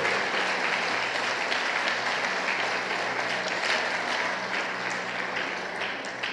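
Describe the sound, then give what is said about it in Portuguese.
A church audience applauds steadily, a dense, continuous wash of many hands clapping, sustained throughout without pause or spoken words, applauding Jesus for the life of a church member. “Vamos aplaudir Jesus pela vida”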